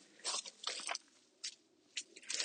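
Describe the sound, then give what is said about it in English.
Dry, brittle crunching and rustling of dry wheat as a person trudges through a wheat field, in irregular bursts with short quiet pauses between the crisp clusters. “You can hear it. It's my sound of wheat.”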